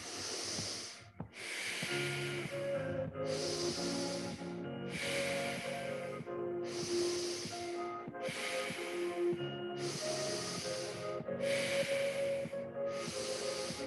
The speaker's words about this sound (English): So you're gonna close off your left nostril. You can lick your lips to seal them shut. We're breathing just through our right side. We're gonna find 10 steady breaths, this side only.